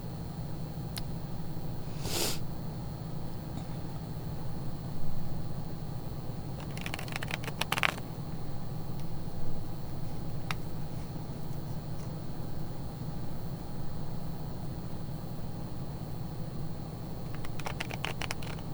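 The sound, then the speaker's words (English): Tarot cards from the Osho Zen Tarot deck being shuffled in a few short, crisp riffling bursts, separated by stretches of quiet with a steady low background hum; nobody speaks. “Okay, so I do want to say as I was shuffling, uh, the card, the moon card, showed itself to me, and it's titled Past Lives in the Osho Zen Tarot.”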